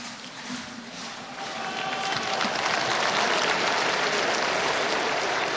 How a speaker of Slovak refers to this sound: Svetý Otec nám udelil požehnanie, ozýva sa aplauz námestia od veriacich a putníkov.